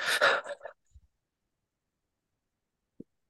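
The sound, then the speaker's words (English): A quick flurry of short, breathy mouth exhales and inhales, fairly loud, lasting under a second, made by deliberately mouth breathing into the chest with short exhales to demonstrate hyperventilating, followed by near silence with a couple of faint soft thumps. “yeah, I'm into hyperventilating”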